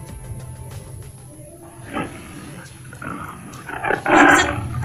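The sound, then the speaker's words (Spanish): A tiger roars in a few deep, rumbling bursts, building to a louder, harsher roar near the end, with a low growl continuing between them. “It's a, tiger.”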